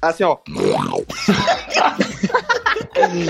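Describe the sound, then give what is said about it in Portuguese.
A person briefly imitates a lion's roar with a loud, rough, growling burst, followed by laughter and excited chatter. “eu ficava rugindo, eu ficava rugindo com as pessoas, assim, Deus e meu rugido Deus.”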